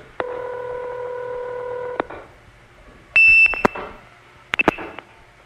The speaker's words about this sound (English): That's the supervision handshake, off hook, on hook. And now it's waiting for new digits,